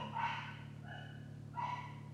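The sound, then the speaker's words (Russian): A dog barks twice, muffled, with a pause between the barks, over a steady low electrical hum. “Это моя, интересно? Да, не моя, моя никогда не гавка.”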